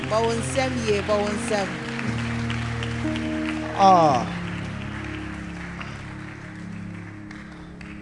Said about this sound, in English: Oh, put your hands together. Yeah, I think, boy, um, oh, clap well.